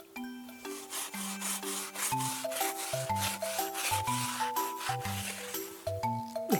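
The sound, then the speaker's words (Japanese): A toothbrush scrubs rapidly back and forth along the grooves of wooden flooring, following the grain to scrape out dust, a steady rhythmic scratchy rasp, with soft background music playing underneath. “このようにあの目に沿ってあのほこりをかき出す感じで”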